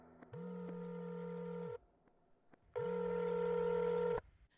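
A phone call's ringing tone: two long, steady buzzing tones, each lasting about a second and a half, separated by a short silence. Fairly loud, with no talking.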